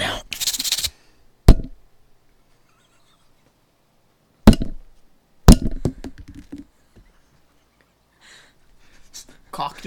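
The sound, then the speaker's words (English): A voice imitates a gun being loaded: a short hissing burst, then three sharp clicks spaced a second or more apart, trailing into mumbled vocal noises and faint murmuring. “yeah, that was a really bad sounding gun, wasn't it? Okay, now the gun's loaded.”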